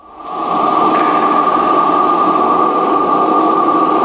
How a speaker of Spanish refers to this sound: Pues esto que escuchan es el sol. Así suena y así se puede escuchar en este centro Swarovski